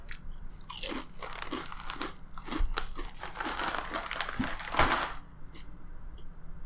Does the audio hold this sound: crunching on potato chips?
yes